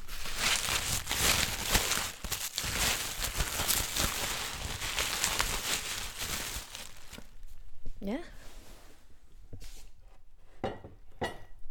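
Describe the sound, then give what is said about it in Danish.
Dense, steady crinkling and rustling of bubble wrap as a glass sculpture of an inflatable bath-toy cat is unpacked from a packing crate with foam peanuts, then thinning into scattered crackles, a brief squeak, and a few light glassy clinks. “Så her har vi en oppustelig balladyr kat lavet i glas Ja, og jeg kan se, at du pakker den ud af en masse bobleplast, og der er sådan nogle skumkugler hernede i, i pakkassen.”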